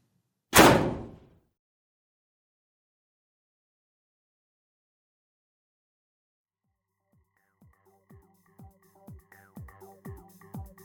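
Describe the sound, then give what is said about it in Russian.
Knocking on the iron door of hospital ward number 404: one loud booming bang, a long silence, then a quickening series of about eight sharp metallic knocks that ring and resonate, with no voices. “Смотрю на номер и стучусь в железную дверь.”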